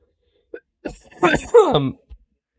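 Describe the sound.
A short burst of coughing: a couple of small catches, then two louder harsh coughs, the last trailing into a voiced, groaning sound before a faint final huff.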